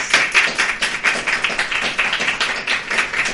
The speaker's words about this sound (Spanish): O sea que un fuerte aplauso para todos ellos. Muchísimas gracias.